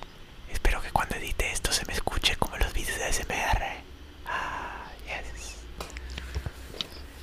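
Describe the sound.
Intimate ASMR-style whispering into a new microphone, with soft breathy hisses and small clicking mouth sounds scattered through it, steady and quiet for several seconds.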